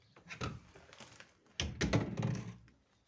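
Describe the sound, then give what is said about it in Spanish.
Heavy clunks and rattling knocks as a very small window is pulled out of its frame, a softer thump first, then a louder jolt and scraping shuffle. “Eso que suena es porque estoy quitando la ventana para que entre más aire, porque la ventana es muy chiquitita.”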